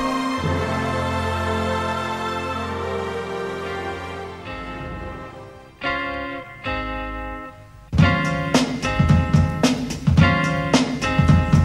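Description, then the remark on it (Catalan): A 90s hip-hop track's intro plays loudly on its own: sustained chords give way to sharp stabs, then a punchy beat kicks in with dense, rhythmic hits and a bass line. “sona com molt hip-hop, rap, Post així dels 90 i tal, i escoltarem una cançó”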